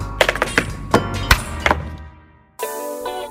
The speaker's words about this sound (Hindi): But I also like the tap dance.